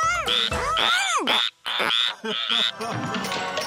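Loud frog croaking with warbling, rising-and-falling calls that overlap in a dense chorus, broken by a couple of brief pauses. No one speaks.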